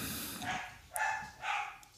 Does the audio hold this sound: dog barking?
yes